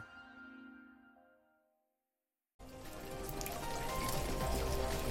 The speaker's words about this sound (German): Regen, Regen immer wieder.